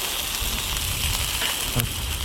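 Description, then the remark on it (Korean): Steady crackling sizzle of pork belly on a grill, a dense hiss with scattered pops and one sharper burst of spatter near the end, continuous and fairly loud with no talking. “정답은 1번 삼겹살입니다.”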